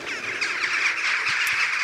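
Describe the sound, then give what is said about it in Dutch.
A dense flock of jackdaws gathering together before going to roost chatters continuously, countless overlapping calls blending into a loud, steady wall of squawking with no pauses and no voices. “en het is echt, eh, als ze eenmaal dan met elkaar voorverzamelen, is het enorm gekakeld.”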